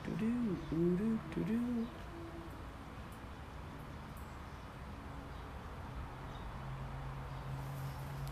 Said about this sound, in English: Do you hear that? The doves.